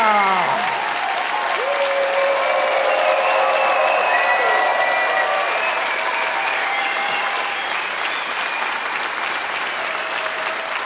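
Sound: audience applauding and cheering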